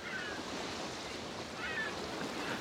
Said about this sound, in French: Un goéland